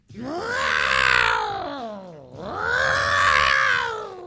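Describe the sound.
A person imitates caterwauling cats with two long, wavering yowls, each swelling and then dipping in pitch. The yowls are loud, with no speech alongside.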